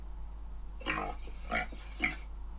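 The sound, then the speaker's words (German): A pig grunts three times in quick succession, short rough snorting bursts heard alone, with a faint steady hum underneath. “Schwein”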